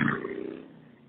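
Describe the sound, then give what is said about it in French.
A motorcycle roars past in Florida, its engine a loud, rough, low growl that starts strong and steadily fades over about a second, with no voices. “Là, on vient d'entendre qu'on était en Floride, on a entendu une moto passer à côté de toi”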